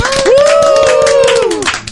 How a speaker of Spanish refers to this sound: Un aplauso para él, por favor.